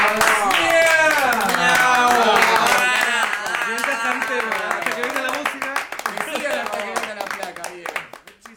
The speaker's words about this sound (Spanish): Y último aplauso para ustedes.